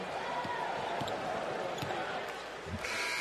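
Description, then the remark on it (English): A basketball bounces in a steady dribble, a thump roughly every half second, as Bowman of the Warriors dribbles it up court in the final seconds of a game against the Clippers, against the constant roar of a packed arena crowd. “Bowman will dribble it up and hugs his college teammate, Robinson.”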